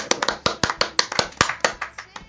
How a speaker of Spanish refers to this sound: Aplaudan